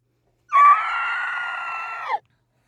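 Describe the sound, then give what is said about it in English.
A single shrill banshee scream, one loud, sustained wail lasting under two seconds that holds steady before dipping slightly at the end, heard alone with silence on either side. “So once you hear the banshee scream, that means it's spoiler time.”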